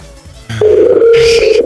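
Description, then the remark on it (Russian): A loud telephone tone sounds through the earpiece, steady with a brief break near the end, like quick repeated ringback beeps, with no one speaking. “Ш- ш- гудки такие истерические.”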